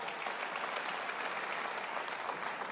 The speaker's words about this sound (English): And if you believe it, clap your hands and give God praise. Come on